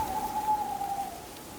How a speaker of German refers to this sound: Eine Eule auf einem Ast eines verdorrten Baumes heulte kläglich und erhielt Antwort von einer anderen in der Ferne.